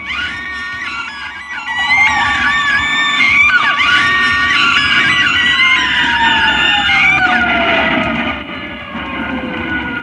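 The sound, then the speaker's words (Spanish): Many people scream and wail at once in a loud, chaotic crowd, while a siren's tone slides steadily downward beneath the shrieks, as if an ambulance is passing by. “Caos en toda la tierra, todas partes, con gritos y sonido de ambulancia.”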